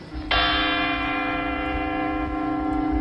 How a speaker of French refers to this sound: Vous savez pas pourquoi il y a une cloche qui sonne pendant 10 minutes le soir à 10 heures